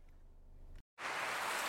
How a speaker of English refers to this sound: Hear that? Is that America cheering or a sausage patty? sizzling to perfection.